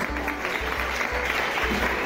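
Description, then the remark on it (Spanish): An audience claps steadily for young traditional music performers, a dense, continuous patter of many hands at even loudness, with a faint low rhythmic thump beneath it and no voices standing out. “Es verdad, un aplauso muy fuerte para vosotros”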